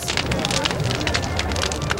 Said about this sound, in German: Jahr für Jahr sitzen bis zu 20.000 Menschen auf den Mainwiesen oder auf den historischen Stadtmauern und schauen auf die haushohen Flammen und lauschen dem Knistern des Feuers.